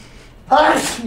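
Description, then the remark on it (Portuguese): A single loud sneeze bursts out abruptly after a brief quiet moment, sharp and breathy with a voiced edge, then trails off quickly. “Brincadeira, Saúde.”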